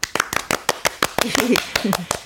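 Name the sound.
clapping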